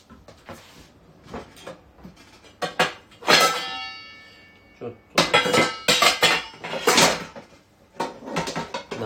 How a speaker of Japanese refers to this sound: 鍋に蓋をして味噌汁は一旦置いておきましょう